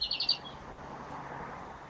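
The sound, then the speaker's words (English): A quick run of four or five high bird chirps at the start, heard in the background of a caller's line, then a steady, faint outdoor hiss with no voices. “I can hear the birds in the background, but I can't hear Fintan.”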